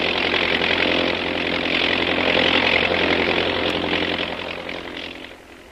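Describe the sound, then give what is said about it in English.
A steady, loud engine drone of an army plane flying overhead, a broad roaring hum that holds for several seconds before gradually fading away. No voices are heard. “There's an army plane overhead.”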